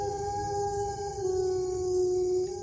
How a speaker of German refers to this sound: Der kalte Wind streicht durch die hohen Tannen und das trostlose Heulen ausgehungerter Wölfe in der Ferne lässt sich ihm die Nackenhaare aufstellen.